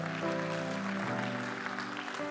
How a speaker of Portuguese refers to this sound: A igreja, você deve aplaudir o Senhor bem forte